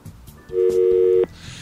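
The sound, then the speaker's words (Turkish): A steady electronic telephone line tone from a faltering phone call that keeps dropping sounds alone for under a second, loud and even, then cuts off abruptly, leaving faint background hiss. “Hala telefonumuz böyle bir can çekişiyor yani.”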